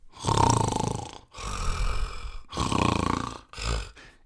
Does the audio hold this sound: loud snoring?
yes